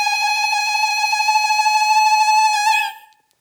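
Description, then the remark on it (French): A single high, piercing ululation (zradits): a woman's trilling tongue cry, made with the tongue clicking against the palate, held steadily for about three seconds, loud, with a rapid warble throughout before it cuts off abruptly. No talking. “Donc il y a ça, bah, je, la plie, euh, je sais faire les zradits aussi.”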